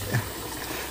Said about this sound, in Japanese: あのちょっとこうコーヒーの器具をね水でゆすいだりとかしながらねお話ししているので、ね、雑音が入ってるかと思いますけどもご容赦ください